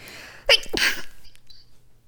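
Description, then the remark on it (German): A single sharp sneeze bursts out, a quick inhaled catch followed by a loud explosive release, then quiet. “Gesundheit.”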